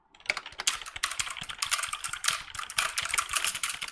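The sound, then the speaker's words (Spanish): Rapid typing on a computer keyboard in a hackers' keyboard duel, a dense, steady clatter of crisp key clicks continuing without pause for several seconds, with no voices. “No pícale, pícale teclado.”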